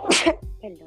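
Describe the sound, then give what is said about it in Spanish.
A single sharp sneeze bursts out, a loud breathy blast followed by a brief low exhale, then a short murmur of voice. “Salud.”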